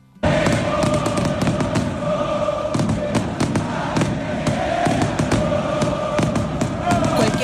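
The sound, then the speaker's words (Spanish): At the Argentine superclásico between Boca Juniors and River Plate at La Bombonera, won by River Plate, a packed stadium crowd roars continuously while sharp firework and firecracker bangs pop repeatedly throughout, loud, layered over the dense wall of chanting and cheering. “Lo ganaron estos últimos en la bombonera, pero si nos deja algo es imágenes, pero ya que estamos en radio, sonidos como este.”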